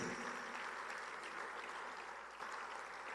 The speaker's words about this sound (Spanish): Denle un aplauso al Señor porque Él es un Dios que bendice.